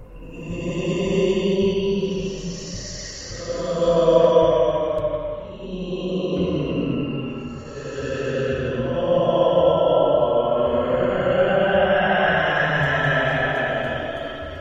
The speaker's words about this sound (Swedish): En vindsusning sveper genom lägret. Låter som en dov röst som verkar väsa.